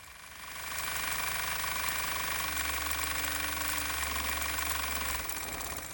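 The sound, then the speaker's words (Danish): A sewing machine in a Nudie Jeans repair store runs up to speed and whirs steadily for several seconds, a loud mechanical buzz with a rapid stitching rhythm, before winding down near the end. “Så står vi her ved symaskinen.”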